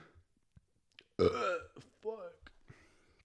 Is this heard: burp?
yes